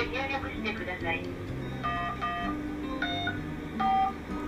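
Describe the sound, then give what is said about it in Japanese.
An electronic device alarm, set from a phone, goes off at the set time in short, repeated high-pitched beep tones spaced at irregular intervals, moderately loud, over a low murmur of background voices. “その時間になるとアラームが鳴り出します”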